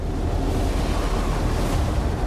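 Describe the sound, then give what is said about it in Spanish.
A huge monster ocean wave over 20 metres high, rising in darkness off the coast of Florida and swallowing a steamship, roars and churns, a loud, steady rush of heavy water with deep rumbling underneath, filling the whole moment without any voices. “El barco de vapor Peconic zarpa y navega a lo largo de la costa de Florida cuando una ola monstruo de más de 20 metros surge entre la oscuridad.”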